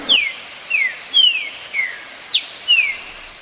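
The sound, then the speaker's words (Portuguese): A green-winged saltator (trinca-ferro) sings a series of about six clear, descending whistled notes at a steady pace, loud, with no talking. “Demos três opções: o Canário da Terra, o Trinca-Ferro”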